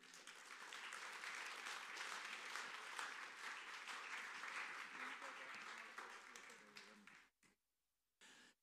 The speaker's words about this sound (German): Lass uns ihm mit einem kräftigen Applaus einfach willkommen heißen.